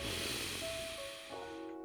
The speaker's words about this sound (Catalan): I expira i nota com quan inspires ara una altra vegada se't infla tota la panxa, sobretot per part de sota del melic, val? Nota com sedimenta tot aquí, vale? Una altra respiració.